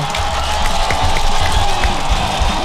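Steady, dense applause with a crowd cheering, a continuous crackling wash of clapping that stays at an even, fairly loud level for a few seconds without any talking.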